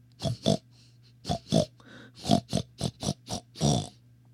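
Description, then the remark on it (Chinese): A voice, as an old wolf in a story pretending to be a pig, imitates a pig, making about ten short, snorting grunts in quick pairs and little bursts, fairly loud, with a faint steady low hum underneath. “老狼一边叫着，一边摇摇晃晃、蹑手蹑脚的走了起来。 怎么样？我是一只猪吧？”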